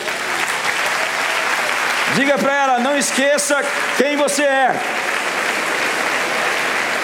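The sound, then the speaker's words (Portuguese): An audience at a worship service applauds steadily and loudly for the whole stretch, clapping for the person beside them, a dense wash of clapping, while a man's voice speaks over it briefly in the middle. “Então eu quero que você se vire para essa pessoa que venceu e está do seu lado e dê uma salva de palmas para ela.”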